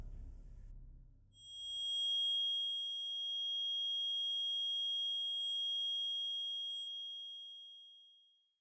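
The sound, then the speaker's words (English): After a brief low rumble, a steady high-pitched ringing in the ears takes over, sustained and piercing like tinnitus, holding for several seconds before slowly fading out. “And then, as if they had all stopped speaking at the same time, my ears began to ring in silence.”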